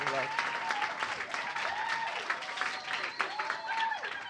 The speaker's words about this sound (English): you want to clap? clap, yeah.